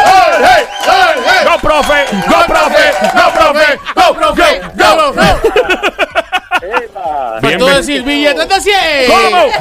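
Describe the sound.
A crowd in a plaza loudly cheers and chants a name over and over as a political science professor from the University of Puerto Rico, Mayagüez campus, arrives; overlapping shouts fill the whole stretch with a rowdy, rhythmic roar.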